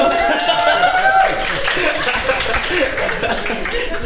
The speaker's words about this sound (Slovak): tak eh, vzhľadom na ten potlesk musím asi povedať áno.